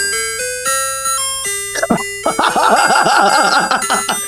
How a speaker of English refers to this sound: Oh, this was the song his ice cream truck played.